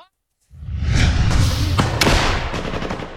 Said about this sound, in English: In the pre dawn light, a cacophony of military firepower fills the air. Incoming explosions, outgoing fire. As one of Ukraine's assault infantry units of the 47th Mechanized Brigade tries to take back trenches in Avdiivka, captured by Russian forces.